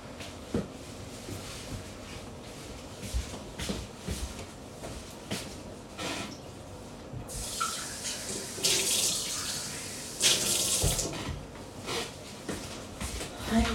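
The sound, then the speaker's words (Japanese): Hot water being poured for hand-drip coffee, a steady trickling stream that swells into louder gushing bursts midway, alongside faint clinks and small sounds, with no talking. “このオリジナルエッセンスというのは、えー、ハンドドリップをした際に、えー、1投目とか1夢というんですが、えー、最初に、えドリップをした時に、えポタポタと下に滴り落ちる、え抽出液の、えことを”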